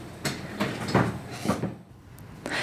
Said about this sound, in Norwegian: hun åpner døren til et lite rom.